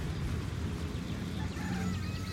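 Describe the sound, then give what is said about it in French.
Several chickens cluck and murmur steadily, their short overlapping calls forming a busy, continuous chatter over a low rumbling background, with no one speaking. “Le vieil homme sortait du poulailler quand il nous a aperçus.”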